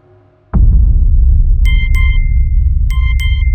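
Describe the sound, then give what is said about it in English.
A phone reminder beep sounds twice, two quick electronic double-tones a second apart, clear over a steady low rumble that starts with a soft thump. It is the phone's reminder that a teleconference is starting. “One afternoon, my phone let out that little persistent beep that reminded me my next teleconference was starting, and I sprinted upstairs to my office.”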